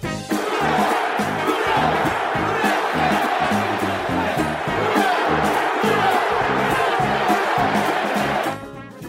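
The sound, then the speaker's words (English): A large stadium crowd of football fans chants "who dat" in a loud, steady rhythm, the repeated two-beat call pulsing through a roaring wash of cheering before cutting off abruptly. “What is that when you jump around and carry on and do the who dat, who dat stuff.”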